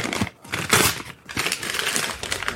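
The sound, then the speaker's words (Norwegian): Christmas gift wrapping paper being torn open, heard as several loud bursts of ripping and crinkling with brief pauses between them, and no voices. “Jeg gir papir, jeg ja. òg.”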